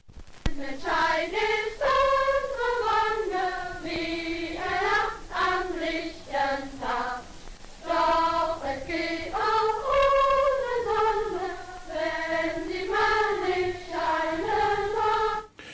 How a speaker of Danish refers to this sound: Ja, vi hører her med faner marcherende piger fra den nazistiske pigeorganisation Deutscher Mädel.